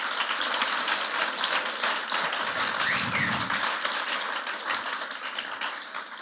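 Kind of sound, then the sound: crowd, audience applause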